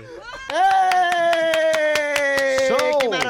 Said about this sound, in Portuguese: Eu começo a aplaudir sozinha, depois eles, eles entendem que é pra aplaudir.